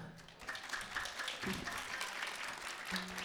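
An audience applauds steadily after a concert at a festival, a dense wash of clapping that holds at an even level throughout, with a few brief tonal voices or cheers rising through it.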